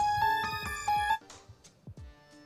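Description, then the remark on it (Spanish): A short, bright electronic jingle of a few quick chiming notes, a little like a ringtone, plays for about a second, then trails off into faint echoing blips and clicks. It is the sound for the show's "¿Qué prefiere?" (Would you rather) segment. “Esa es la música de qué prefiere. Bueno, el sonido de.”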